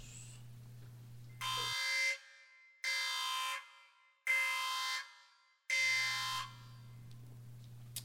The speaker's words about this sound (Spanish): Y bueno, vamos con la alarma anti-spoilers y regresamos.